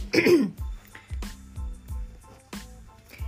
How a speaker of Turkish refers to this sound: Bak ataerkil derken de öksürüğüm geldi.